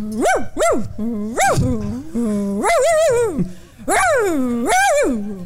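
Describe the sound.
A person imitates their own small dog with a series of high, whiny yips and drawn-out yowls, fairly loud, rising and falling in pitch across several bursts.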